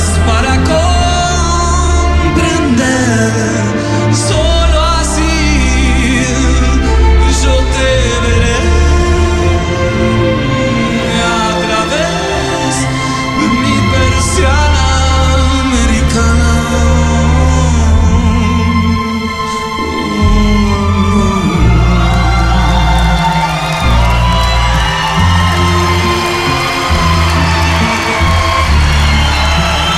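A rock song played live by a full band in Mexico: steady driving drums, thick bass and bright guitars, loud and continuous for the whole stretch, with only a faint hint of crowd noise underneath.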